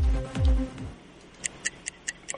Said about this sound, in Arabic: ما في اصوات في السيارة ها ها ها هذا ايش؟ صوت ال... صوت ال... الحزام صوت هذا الصوت الوحيد اللي فيه